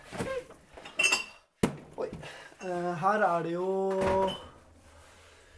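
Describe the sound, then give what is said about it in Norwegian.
A fridge being rummaged through, with several light clinks of jars and glass and a sharp knock, followed by a person speaking briefly over the clatter. “Kan jeg få kikke litt i kjøleskapet ditt? Det kan du. Se her.”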